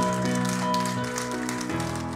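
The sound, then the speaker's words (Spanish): Loud, sustained crowd applause for Christ at a church service, a dense and steady patter of many hands clapping, with held keyboard-like tones humming underneath and no talking. “ese aplauso fuerte a Cristo porque Él es bueno.”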